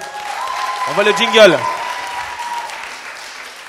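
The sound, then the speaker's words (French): An audience applauds steadily with a dense, even patter of clapping throughout, while a man's voice briefly speaks over it partway through. “Merci encore d'abord, on peut l'applaudir.”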